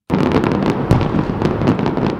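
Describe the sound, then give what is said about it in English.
A dense barrage of Fourth of July fireworks exploding over the St. Louis riverfront, with rapid overlapping booms and crackling pops, loud and sustained throughout with no pauses and no voices. “It wouldn't be the 4th of July without fireworks over the St. Louis riverfront.”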